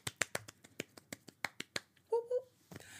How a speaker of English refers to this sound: So, I'm going to do a clap for myself.